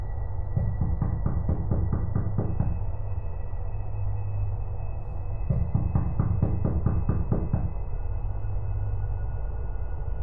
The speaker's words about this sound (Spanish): Justo después de eso, se escuchó que un coche llegó frenando en seco y tocaban desesperadamente a la puerta.